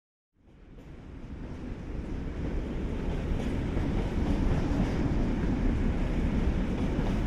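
A train travelling from Nieuwerkerk to Rotterdam rumbles steadily along the rails, its low, dense roar rising from silence and holding loud, with a faint clickety-clack of wheels beneath. No one speaks.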